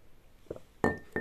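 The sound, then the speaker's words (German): A woman's finger taps against a drinking glass with a drink in it: one soft knock, then two brighter clinks that ring briefly with a clear glassy tone, fairly loud, with no talking. “redet gerade mit ihrem Finger ins Glas und weil wir haben gerade keinen Löffel hier oder sowas.”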